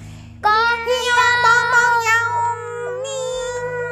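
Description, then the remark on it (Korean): Several voices imitate animal cries all at once, a donkey, dog, cat and rooster shouting together with all their might at the donkey's signal, as the Bremen Town Musicians. It is one loud, sustained, wavering call lasting a few seconds, with a meow-like tone standing out. “당나귀 신호에 맞춰 모두 힘껏 소리 질렀어요. 희망! 옹 해야지. 꽃뼈! 히 멍멍! 야옹!”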